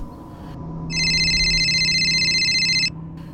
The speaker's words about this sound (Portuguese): Já se passava das duas da manhã quando meu telefone tocou.